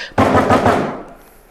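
A quick burst of heavy, rapid thumps, like something pounding on the roof of a car, growing faster and louder, then a lingering hollow rumble that fades away.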